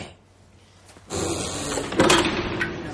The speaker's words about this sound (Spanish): Los presos cruzan una puerta.